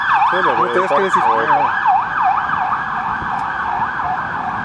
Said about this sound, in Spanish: Estamos esperando a que pase la puta ambulancia. Me quedé callado para que editaras eso.